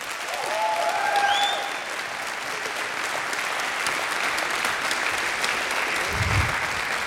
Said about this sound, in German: Der Applaus spiegelt ungefähr so die äh, parlamentarische Mehrheit hier.